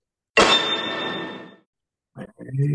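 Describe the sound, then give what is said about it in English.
A beer and a coffee mug clink together in a toast, one sharp hit with a bright ringing tone that fades over about a second before voices start talking. “And a coffee mug too.”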